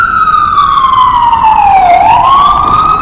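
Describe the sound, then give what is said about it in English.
A loud emergency siren wails, its pitch sliding slowly down and then sweeping back up, over a steady rumble of city traffic. “The endless sirens, endlessly, endlessly.”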